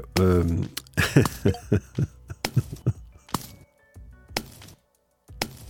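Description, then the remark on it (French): A quick series of soft, sharp smacks, about a dozen snowball-hit sound effects in an uneven rhythm, each standing for someone throwing a snowball at the show's host, with a brief vocal cry at the start and faint murmuring between impacts. “À chaque son, c'est quelqu'un qui me lance une balle de neige.”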